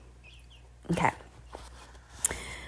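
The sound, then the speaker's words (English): A few thin, high chirps from baby chicks sound indoors, faint at first and then one sharper peep near the end, with a person briefly speaking in between. “you can really hear the chicks because they're getting bigger and bigger”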